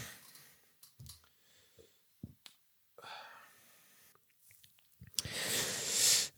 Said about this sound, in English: Let me just take a little little sip here.